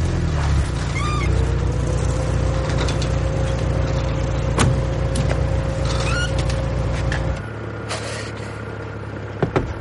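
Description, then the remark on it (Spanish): A parked car's engine starts and rumbles loudly, holding a steady drone with a thin whine as the car pulls away, then the noise drops off sharply near the end. “Chica arranca.”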